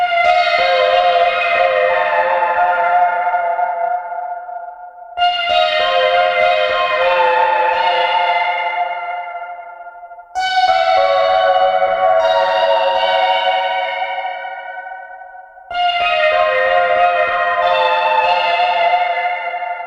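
Four loud, crashing bursts of spring reverb with filter sweeps arrive about every five seconds, each a dense metallic wash that rings out and slowly decays before the next hit, with no talking.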